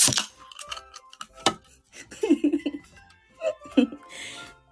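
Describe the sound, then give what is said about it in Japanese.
A can of sugar-free drink has its pull-tab cracked open with short, sharp hissing bursts, followed by soft voices and laughter, then another brief fizzy hiss at the end. “モグカン来た来たよでもね無糖なので開けますね音聞かせてあげます”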